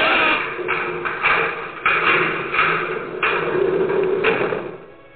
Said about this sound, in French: Et je ferme la porte là-bas en partant.